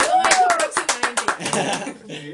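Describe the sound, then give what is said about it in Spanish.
A short burst of quick, sharp hand claps welcoming a special guest, about a dozen in a steady rhythm, with laughter and voices running underneath and carrying on briefly after the clapping fades. “que aplaudamos.”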